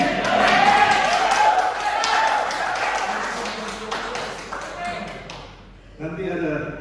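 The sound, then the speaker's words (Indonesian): A church audience applauds with dense, steady clapping and cheering voices mixed in, loud, then the applause fades and a voice speaks over the thinning noise near the end. The applause is given in support of a man becoming a pastor. “Ya, kalau tepuk kasih fotonya, tangannya, berapa kasih tepuk tangan.”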